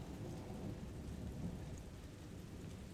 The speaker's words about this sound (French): Je voudrais que la tempête fasse encore bien plus de boucan, que les toits s'écroulent, que le printemps ne revienne plus, que notre maison disparaisse.